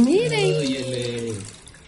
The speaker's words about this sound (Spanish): pero la muestra está ahí, arrojando agua con tanta fuerza y lo mejor que hasta en el patio de su casa.